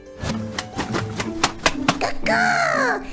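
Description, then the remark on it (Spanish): Coco the bird flaps its wings hard: a rapid series of loud, papery wing flaps, about eight quick beats in a row, followed by a short descending vocal squawk or call. “Mis alas suenan mucho, mucho.”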